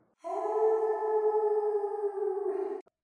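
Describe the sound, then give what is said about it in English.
A person mimics a wolf howl with one long, steady vocal tone held for over two seconds before it wavers briefly and cuts off abruptly. “Uh, and so then, you know, we lift our heads back and howl”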